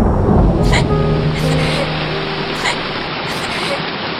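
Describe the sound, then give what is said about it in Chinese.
Steady, dense hiss of cold rain falling, loud and unbroken, with a few brief sharper splashes and faint muffled voices of people crying buried underneath the rain. “我们在雨中哭泣着，冰冷雨声淹没了我们的声音。”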